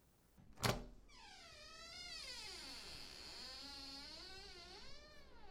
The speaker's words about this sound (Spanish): abre la puerta.